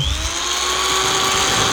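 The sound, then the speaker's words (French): The neighbours' power drill runs continuously with a steady, high-pitched mechanical whine and a constant loud level throughout, heard alone with no voices. “C'est la fête à la maison, les voisins jouent une perceuse, alors j'ai décidé de m'éclipser direction la nature.”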